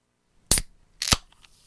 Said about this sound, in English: Yeah, it's opening a can, an aluminium can.